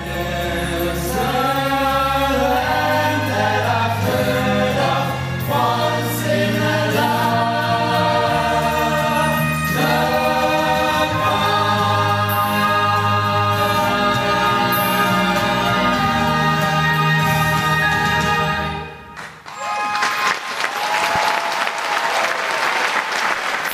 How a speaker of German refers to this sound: Applaus für den Zauberer von Oz im Coburger Globe.